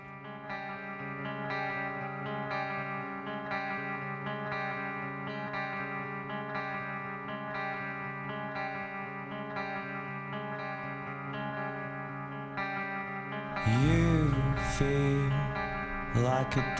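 A music track from a new album, played on the show Wild Brunch, with a steady wash of layered, effects-heavy guitar holding a sustained chord, then swelling louder near the end with bending, sliding pitches and a heavier low end.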